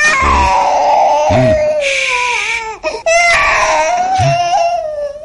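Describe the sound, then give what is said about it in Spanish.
A baby held in its father's arms cries loudly and without letup as he comforts it, long high-pitched wails sliding slowly downward, broken only by a brief catch of breath midway before the crying resumes just as strongly. “Mientras, el padre consuela a un bebé que llora en sus brazos.”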